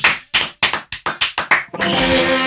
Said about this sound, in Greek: Και πάμε λοιπόν να, να χειροκροτήσουμε την επιστροφή της κιθάρας